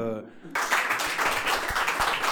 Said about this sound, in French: Écoutez, moi, je vous propose de les applaudir et de les accueillir sur le plateau. Donc, je vois une, directrice là-bas qui se lève.